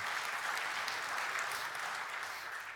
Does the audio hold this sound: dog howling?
no